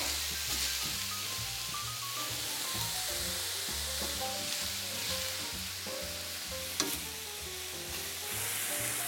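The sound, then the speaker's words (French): Meat sizzles steadily in a hot pan over high heat as it is browned and stirred, with a continuous crackling hiss and the scrape and clatter of stirring running throughout, fairly loud. “je mélange bien. Je remue, je remue. Je suis sur un feu fort.”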